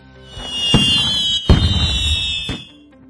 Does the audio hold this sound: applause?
no